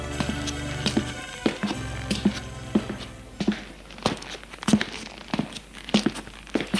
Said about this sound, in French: Chez lui, il fait les 100 dans les pièces de son appartement.